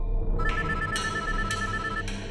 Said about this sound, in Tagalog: At habang naghihintay kaming mag-umaga, may tumawag sa cellphone ng ate ko.